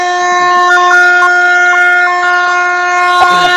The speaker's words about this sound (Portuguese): A buzina saiu, largou, largou. Todo mundo largando para meia maratona, 21.197 metros e meio.